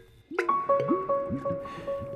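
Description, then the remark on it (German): A boy breathing hard pumps water from a well, spraying the jet up into a tree: wet, splashing gushes repeat in an uneven rhythm, with squeaky, whistling tones from the pump mechanism. Moderately loud, with no voices. “Heftig atmend pumpt er Wasser aus dem Brunnen. Je schneller er pumpt, umso weiter reicht der Strahl in den Baum.”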